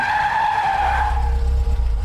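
Loud, high-pitched tire screech as a car brakes hard just past a curve and stops in front of a house, the squeal fading after about a second into a low engine rumble that continues to the end.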